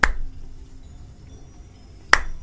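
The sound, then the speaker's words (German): Two light, crisp claps from spectators in the stands, about two seconds apart, each a single sharp snap-like hit over a quiet, low background hum, with no talking. “Und plötzlich die gesamten Zuschauer auf den Rängen klatschen so ganz leicht, so.”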